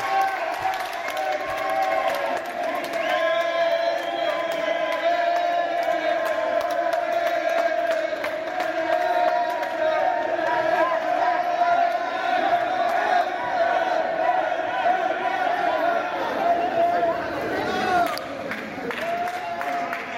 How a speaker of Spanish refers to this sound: Con vítores y como una estrella, así fue recibido Echere Sosa en la noche de ayer en la Terminal 1 del aeropuerto César Manrique de Lanzarote por decenas de familiares y amigos.